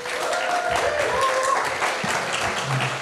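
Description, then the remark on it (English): Steady applause from an audience welcoming a female guest, a dense wash of many hands clapping at once, fairly loud and continuous, with a few faint voices and whistles mixed in. “Would you give her a big warm welcome?”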